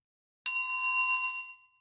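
A single bright ding of a bicycle bell, struck once with a sharp attack and a clear metallic ring that sustains for about a second before fading out, heard alone with no talking.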